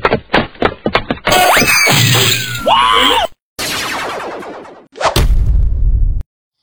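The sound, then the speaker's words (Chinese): Video game sound effects from a Mario game: quick tapping steps, then loud busy game audio with a swooping, falling whistle-like tone as Mario falls off a broken bridge, followed by a sharp crash and a heavy rumbling thud as he lands in the sea of trees at the forest's end, before it cuts off. “马里欧从断桥上掉了下去，刚好落到了森林尽头的树海里， 还好没摔个半死。”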